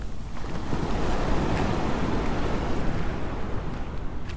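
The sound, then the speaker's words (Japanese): Steady roar of ocean surf washing onto a beach, a broad continuous wash of water with gentle surges, fairly loud, with some wind buffeting and no voices. “波の音をお届けしています”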